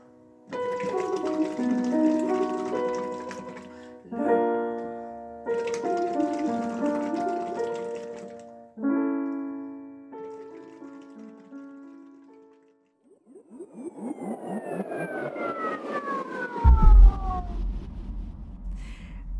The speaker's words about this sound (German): Aber ganz besonders spannend fand ich dieses Lachsvox. Wie funktioniert das genau? Also wir haben jetzt dieses Blubbern gehört. Aber man kann ja nicht dann ständig singen und es blubbert.